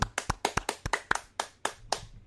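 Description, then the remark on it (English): A short burst of sharp, crisp hand claps welcoming a guest, about a dozen in a quick steady rhythm that slows slightly toward the end before fading out, with no voices. “So uh, let's uh, give him a round of applause,”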